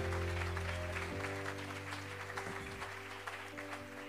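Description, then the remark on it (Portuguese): A church audience applauds the Lord after a blessing prayer, with dense, steady clapping over sustained keyboard or organ chords that shift partway through, the applause slowly thinning toward the end. “Dê um aplauso aí, Senhor, meu irmão.”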